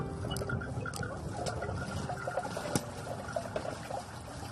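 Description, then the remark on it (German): Water trickles and splashes steadily at a borehole, the only water source within 60 kilometres, a continuous dense liquid wash broken by small irregular drips and clicks, moderately loud, with no voices. “Das Bohrloch ist die einzige Wasserstelle im Umkreis von 60 Kilometern.”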